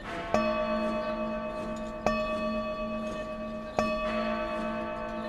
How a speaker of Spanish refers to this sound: Me pareció oír que un reloj distante daba las ocho. Escuché con atención y desconfianza. Pronto otro reloj comenzó a emitir unas notas altas y perentorias. Con gran tranquilidad dio ocho indiscutibles campanadas.